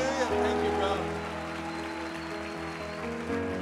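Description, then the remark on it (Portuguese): A church audience claps for Jesus over sustained, droning keyboard chords, a dense wash of applause holding an even level for the whole stretch, with some voices mixed in. “Vamos dar um aplauso a Jesus.”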